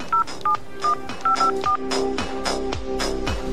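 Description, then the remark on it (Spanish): A quick series of about six short, clear telephone keypad dialing beeps in an irregular rhythm, each a steady dual-pitched tone, as a call is dialed on a public street telephone, over a soft background of music. “O cuando llovía torrencialmente y tenías que ir al teléfono público de la calle para hacer una llamada.”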